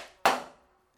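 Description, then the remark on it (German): A single solid thud of a door shutting behind people led into a high, dark room, fairly loud, with a short resonant tail that fades within half a second. No voices. “Und hinter ihnen geht ihre Tür.”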